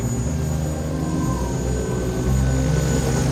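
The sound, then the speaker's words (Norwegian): A helicopter roars with a steady, heavy engine and rotor drone, loud throughout, under a wash of rushing wind noise as it sets down in strong gusts of wind on its third landing attempt. No one speaks. “Men så fikk de til å lande den tredje gangen.”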